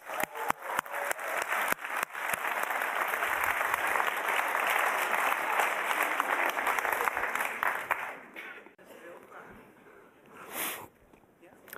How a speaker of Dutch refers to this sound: Kom even op het podium. Your 10 minutes of fame. Kom maar. Ja, applaus.